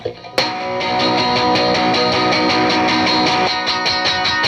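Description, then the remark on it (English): A loud, sustained electric guitar rings out through a cranked amp, chords smeared together with a wash of reverb, strummed steadily with sharp accents and no voices. “It was just the amp cranked up, you know, and it was all like, this just all this kind of like bit of reverb and sort of like.”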